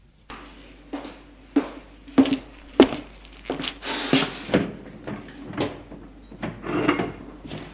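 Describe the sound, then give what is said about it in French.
A refrigerator door is pulled open in a kitchen to take out a bottle of orange juice, followed by a string of clunks and rattles as items inside shift and knock together, with no one speaking. “Ouvrez le réfrigérateur pour prendre une bouteille de jus d'orange.”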